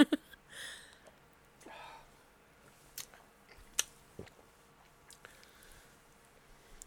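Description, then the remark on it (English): Someone chugs a thick yogurt drink: a few wet swallows mixed with irregular lip smacks and mouth clicks, quiet and with no talking. “Uh uh-uh, no, I chugged it.”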